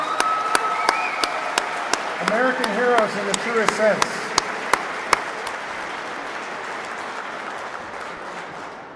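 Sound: rally crowd applause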